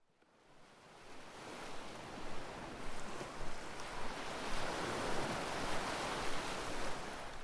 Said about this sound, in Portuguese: atravessando a tormenta com ondas incessantes de até 12 metros, atingindo meu casco, salpicando o assoalho do convés, eu seguia firme.